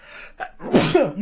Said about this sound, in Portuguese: Santinho